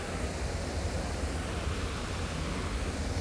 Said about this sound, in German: Da gehen wir jetzt auch mal rein, mal schauen, was hier ist. Hier ist ein blau angestrahlter Brunnen, äh, Wasserfall.